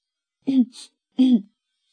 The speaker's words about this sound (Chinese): 阿福清了清嗓子，